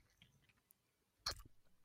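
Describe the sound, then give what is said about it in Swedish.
A single wet mouth smack, a short squelchy burst after near silence with a few faint lip clicks before it, as a snus pouch is worked out with the tongue. “Så det blir ett lite smaskljud kan jag tänka mig så här.”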